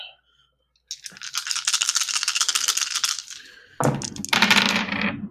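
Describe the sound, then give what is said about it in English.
Dice clatter and rattle across a hard tabletop in a fast burst of clicks lasting a few seconds, followed by a second, heavier roll that tumbles and settles. “So much for turning the table whole rolling dice thing is not working well for me today.”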